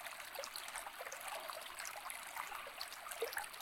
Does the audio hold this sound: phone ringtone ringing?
no